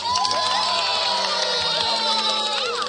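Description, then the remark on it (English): An audience cheers wildly as dancers in pink tutus take the stage for a ballet performance, a dense, steady roar of many shouting and whooping voices with high-pitched rising cries layered throughout, loud and sustained without a break. “When the baby ponies tiptoed on stage in their pretty pink tutus, the crowd went wild.”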